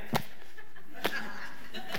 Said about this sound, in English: And you'll, you'll notice his, his signature, right? He stands, he stands right before he's going to dive. And what does he do? He starts slapping his back. He's like,